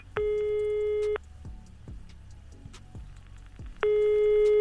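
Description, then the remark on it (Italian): A telephone ringback tone while a phone call to someone in Cannes connects: two steady one-second beeps separated by a pause of about three seconds, with soft ticking clicks in the quiet gap. “Ah bene e quindi adesso proveremo a rintracciarlo telefonicamente, vediamo se, se riusciamo a raggiungerlo e a sapere se sta bene in quel di Cannes.”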